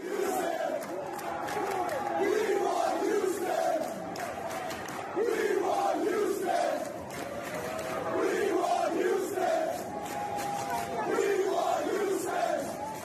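A huge crowd of Yankees fans at Yankee Stadium in the Bronx chants "We want Houston" in unison, the three-beat phrase repeating every couple of seconds over a constant roar of voices, loud and echoing.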